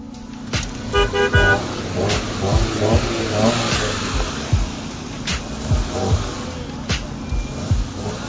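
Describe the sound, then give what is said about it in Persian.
Busy stalled traffic on the way out of the city to Karaj, with engines rumbling and revving, punctuated by several short car horn toots and honks from drivers in stationary cars, fairly loud and continuous throughout with no voices. “نفس کم آوردیم تو این شهر گفتیم واسه یکم هوای تازه و اکسیژن یه توکه پا از شهر بزنیم بیرون میون دود و بوغ رفتیم تا کرج هوا همونی بود که بود توی ترافیک راننده ها توی ماشین های بی حرکتشون به همدیگه”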